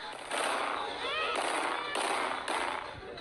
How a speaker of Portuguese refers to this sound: Um vídeo postado na internet mostra uma mulher dando tiros para o alto.